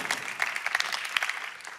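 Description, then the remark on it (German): An audience applauds with steady, dense clapping, a continuous crackle of many hands at even loudness with small sharp peaks, and no voices rising above it. “Ja, Applaus, darf ich dir was sagen?”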